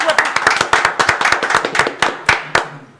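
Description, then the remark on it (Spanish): A small group claps loosely as a guest is introduced, the sharp hand slaps overlapping in an uneven, fast rhythm for a few seconds before thinning out. A faint murmur of voices sits underneath. “¡Aplaudan!”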